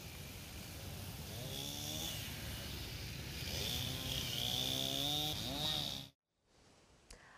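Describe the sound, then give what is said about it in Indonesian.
Officers use a chainsaw to cut the trunk of a tree lying across Jalan Pati Unus, Kebayoran Baru, South Jakarta, felled by heavy rain, wind and lightning, to reopen the road. The engine whines and surges in pitch for about six seconds, then cuts out abruptly, leaving near silence with a faint click. “petugas langsung memotong batang pohon yang melintang sehingga arus lalu lintas sudah dapat dilalui kembali oleh kendaraan”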